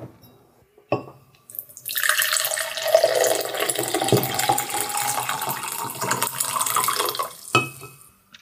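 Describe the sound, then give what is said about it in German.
Tea is poured steadily into a cup for several seconds, a continuous splashing trickle, with a soft clink of crockery just before and right after the pour. “Ich Muss mir da schnell ein bisschen Tee einschenken.”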